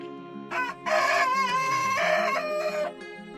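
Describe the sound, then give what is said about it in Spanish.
Hens cluck and cackle loudly on a morning of intense cold, several overlapping calls rising into drawn-out squawks over a steady low farmyard hum, with no one speaking. “Esa mañana de intenso frío mis gallinitas cacareaban más que nunca.”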